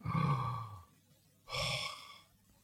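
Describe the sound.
Two slow, deep breaths, fairly loud, demonstrating a breathing exercise used during an anxiety attack: a long airy exhale, a short pause, then another full breath, with no talking.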